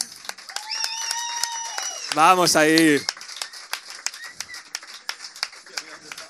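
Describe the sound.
Steady applause from an audience, dense crackling claps running throughout, with a man briefly speaking over it partway through before the clapping continues.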